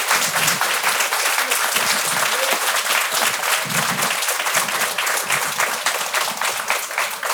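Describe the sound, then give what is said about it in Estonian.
Sustained applause from an audience at the close of an onstage discussion about what changes Europe needs, a dense wash of many hands clapping at steady loudness for several seconds, with no talking over it. “väike aplaus, ma arvan, on ära teenitud küll.”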